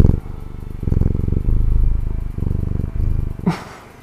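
A cat purrs in a steady, low rumbling drone with a fast pulsing rhythm for several seconds, ending with a brief rising higher sound before fading. No one speaks.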